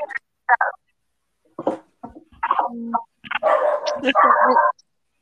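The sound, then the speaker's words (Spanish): A dog downstairs barks and yips in a quick, irregular series of sharp bursts, building to a longer run of excited barking near the end. “Se escucha Firulai”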